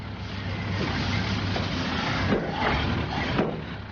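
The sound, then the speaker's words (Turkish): A car engine rumbles steadily with broad road noise and a low hum, holding at moderate loudness with slight swells as the vehicle draws closer. No one speaks. “Bir araba geliyor.”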